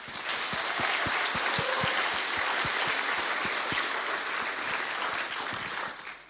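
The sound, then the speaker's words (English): Sustained applause from an audience at a morning service at Knysna Vineyard, giving the kids a round of applause: a dense, steady wash of many hands clapping at full volume for several seconds before tapering off slightly at the end. “I think we can start off the right way, which is to give each and every single one of these kids a massive round of applause.”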